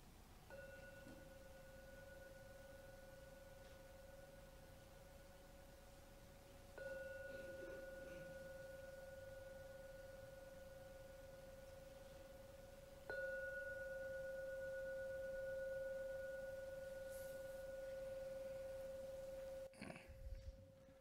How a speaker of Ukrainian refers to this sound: Зараз я тричі подзвоню в гонг, щоб закінчити нашу медитацію.